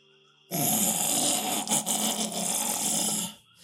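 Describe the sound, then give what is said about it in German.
A loud, raspy rattling breath drawn out for about three seconds, harsh and gurgling like labored snoring, coming from a gaunt, unkempt, dirty man in a nearby bush at a wrecked lakeside camp, with no talking. “Und dann hörst du aus einem Gebüsch in der Nähe dieses Röcheln.”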